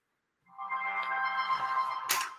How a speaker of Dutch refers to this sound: Oh, nou, telefoon staat piepen.